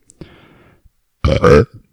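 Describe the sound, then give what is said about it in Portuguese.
A loud burp lasting about half a second, deep and rumbling with a rough, voiced texture, preceded by a quieter gurgling rasp and followed by a small throaty click. “E desculpa ter arrotado no, na, antes do seu e-mail.”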